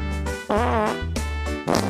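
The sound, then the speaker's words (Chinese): A cartoonish string of farts from the children's story show 小葫芦故事剧场, made by the character Brother Hulu after eating lots of sweet potatoes: about four loud, buzzy blasts in quick succession, with a wobbling, brassy pitch and no talking. “哥哥，你能不能不要放屁了？”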